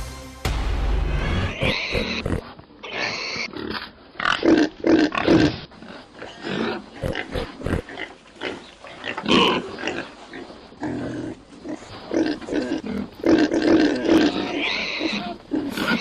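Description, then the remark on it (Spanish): A pig grunts and squeals repeatedly, with rough, irregular bursts of snorting noise spread across the whole stretch and no talking. “Bueno, nuestra historia sonora de hoy tiene que ver con un cerdo, ya se la podrán imaginar, ¿no?”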